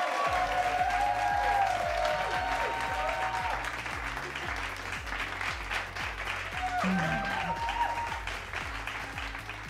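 An audience applauds steadily for the full ten seconds, a dense, even wash of clapping with a rhythmic musical beat and melody playing underneath.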